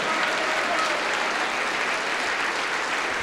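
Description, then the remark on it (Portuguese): An audience applauds the Lord and the name of Jesus for each life that is arriving, a dense, continuous wash of many hands clapping at an even loudness throughout, with no distinct individual claps standing out and no voices on top. “Vamos aplaudir ao Senhor por cada vida que está chegando.”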